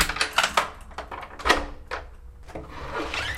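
A key rattles and clicks in a lock, followed by the clunk of a door being opened. The sharp metallic clicks and scrapes are fairly loud, with no talking.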